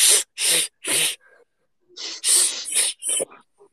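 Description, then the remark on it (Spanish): A voice imitates a beatbox snare drum made from K and S sounds, with three sharp, hissy bursts in steady rhythm, then after a brief pause a quicker run of similar breathy snare hits, fairly loud. “vamos a arreglar la caja, vamos a hacer un recordatorio de la caja, porque así después ya es más fácil todo lo otro, ¿de acuerdo?”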